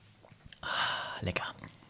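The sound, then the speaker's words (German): An airy slurp of hot tea drawn from a cup, lasting under a second, then a few soft mouth and cup clicks. “Wahre Tee, war das nicht so, wahre Teetrinker schlürfen auch?”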